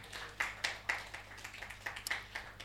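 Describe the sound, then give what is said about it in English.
Light, scattered audience clapping for people who found Mark chapter 9, verse 1: a dozen or so sharp, uneven claps spread over a few seconds, fairly soft, with no voices over it. “Clap for them.”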